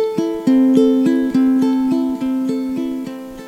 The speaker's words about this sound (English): And so to capture that energy in music, I use what is called an arpeggio, which is breaking up a chord into individual notes. It sounds like this.